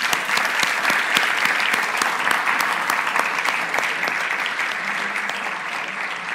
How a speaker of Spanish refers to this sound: el tiempo ha volado y pues yo creo que le podríamos dar un aplauso, ¿no? Sí, muchas gracias.